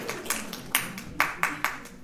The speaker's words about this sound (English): Since I've received my applause, there's no need for me to proceed. We can stop now and go on to the next speaker.